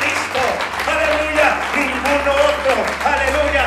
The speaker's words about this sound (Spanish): Y alguien que sea libre, que le aplaude al Señor en esta tarde y celebre la libertad